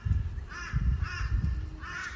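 A crow caws three times in a steady rhythm, harsh, over a low rumbling background with no talking.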